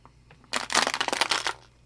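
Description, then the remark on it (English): A plastic water bottle is crunched and crumpled as it is disposed of, a quick burst of dense, crackly noise lasting about a second, with a few softer crinkles before and after. No one speaks. “Sorry for the crunching on audio.”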